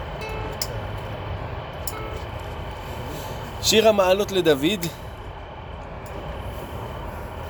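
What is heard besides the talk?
passing train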